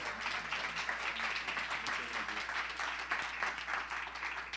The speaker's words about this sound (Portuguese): Aplauda mais uma vez, amém?